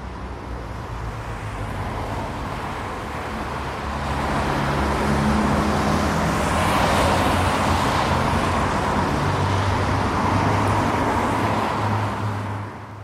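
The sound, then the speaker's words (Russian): Steady roar of evening city street traffic, cars rumbling and swishing past continuously, swelling louder midway as vehicles pass, with a low engine hum throughout and no voices. “Вечерний город. Машины, дома, светофоры и билборды.”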